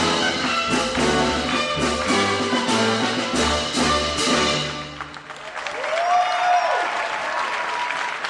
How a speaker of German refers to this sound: Aber das Publikum zum sinnvollen Klatschen zu animieren, das macht Spaß.